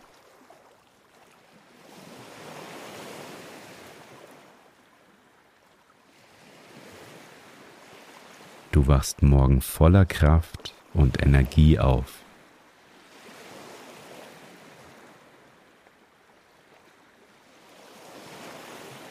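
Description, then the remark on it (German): Soft ocean waves roll in and wash up on a shore in slow, repeating surges, with a calm voice speaking briefly over the surf midway through, as part of a guided sleep meditation. “Die geführte Meditation hilft dir mit Meeresrauschen beim Einschlafen.”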